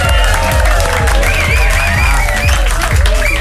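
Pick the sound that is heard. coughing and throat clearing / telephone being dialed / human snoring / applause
applause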